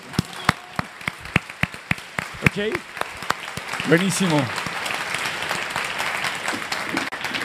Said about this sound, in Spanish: Entonces, un aplauso a todas las mamás aquí presentes.